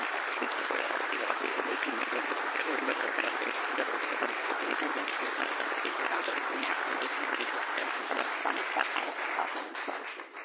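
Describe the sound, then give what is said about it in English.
Steady, sustained applause from an audience thanking the musicians, sound engineer and team, dense overlapping claps filling the whole stretch at an even level before tapering slightly at the end. “Why don't we just uh, show appreciation for them?”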